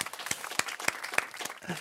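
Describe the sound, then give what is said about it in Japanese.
Audience applause fills the moment, a dense wash of many hands clapping with a few sharper, louder claps standing out at a steady, uneven rhythm. “もう拍手してこうよ。”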